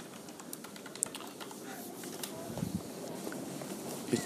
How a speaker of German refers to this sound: Es ist so schön, mal wieder beim Aufnehmen so an der Tastatur zu sitzen. Klack, klack, klack. Das ist echt schön.